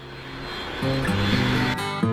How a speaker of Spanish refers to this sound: Se escuchan los aviones.